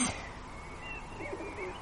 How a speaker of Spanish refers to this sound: De repente, la extraña sinfonía producida por las aves cesó.